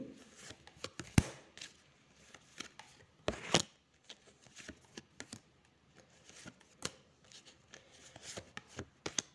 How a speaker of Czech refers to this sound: Co se týče partnerských vztahů, tak já ještě vytáhnu další karty.